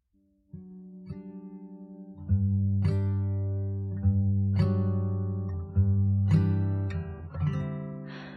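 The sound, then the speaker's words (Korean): A birthday-themed song's instrumental intro: warm, sustained keyboard-like chords change every second or so in a steady, gentle rhythm. Fairly loud, with no voices yet. “음, 네, 그러면 생일과 관련된 일기를 읽어봤으니까 한번 생일과 관련된 노래를 제가 한 곡 선곡을 해봤어요.”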